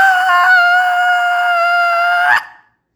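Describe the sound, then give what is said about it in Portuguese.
A single loud, shrill scream from a fairy godmother, held steady for a couple of seconds, piercing, then cutting off abruptly into silence. “E foi um berro tão alto que estremeceu todo mundo que estava lá.”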